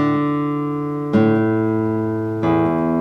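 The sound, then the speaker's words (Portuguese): A slow guitar arpeggio in 3/8 time, three plucked notes each ringing clearly until the next one sounds, the player's thumb damping the previous string as each new note enters. Moderately loud, with no voices. “Vocês percebem que o meu polegar está sempre sendo usado abafando a corda anterior.”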